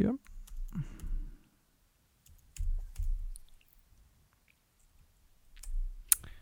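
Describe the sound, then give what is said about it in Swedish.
Several sharp computer mouse clicks, made while clicking through to find parts for a computer build, land at irregular intervals, with one louder click near the end, over soft low murmuring and breathy background noise. “sökfunktionen där var inte så jättehjälpsam så jag måste gå och klicka mig fram till, till vad vi behöver här nu.”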